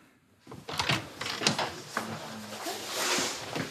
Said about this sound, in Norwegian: Døren åpner seg